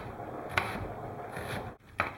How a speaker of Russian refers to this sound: Лук мелко нарезать.